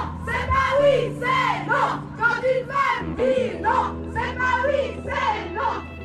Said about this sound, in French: Ces slogans que vous venez d'entendre et tous ceux qui vont suivre, je les ai enregistrés lors du 1er mai à Lausanne. Les femmes défilaient en tête du cortège des travailleurs avec de grandes banderoles violettes.